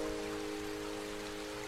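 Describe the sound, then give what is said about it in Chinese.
Light rain falls outside a window with a soft, steady hiss and faint patter, quiet throughout, with a low constant hum underneath and no voices. “天黑了，窗外的小雨滴呀，轻一点哦，小宝宝要睡觉了。滴答滴答，小雨滴轻轻地放慢了脚步，跳起一曲轻柔曼妙的舞来。”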